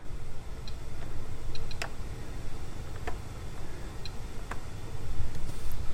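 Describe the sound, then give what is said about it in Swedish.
A handful of short, quiet electronic blips and clicks from an air fryer's buttons as its temperature is set from 180 to 200 degrees, spaced irregularly over several seconds against a steady low background hum, with no one talking. “Och vi ska ställa in den på 200 grader så då har den ett litet blippljud som låter så här.”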